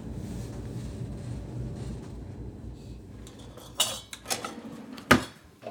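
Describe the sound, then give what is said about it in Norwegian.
Several sharp metallic clinks and clatters of pots and cutlery ring out, scattered irregularly over a low, steady rumbling background, with the loudest clang near the end, as a dinner of lamb chops and potatoes is cooked in a pot. “Lammekoteletter og poteter i kjelen.”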